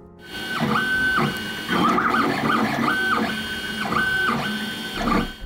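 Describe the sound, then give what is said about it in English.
A 3D printer running, its stepper motors whining in steady pitched tones that shift and repeat every second or so, over continuous mechanical whirring and faint clicks. “Next on our list of breakthroughs is the 3D printer.”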